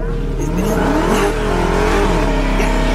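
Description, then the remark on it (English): A car engine revs continuously and loudly in a played video of stolen cars, its pitch rising and falling in smooth sweeps over a steady low rumble, with no pause for the whole stretch. “Bro, this video is all stolen cars.”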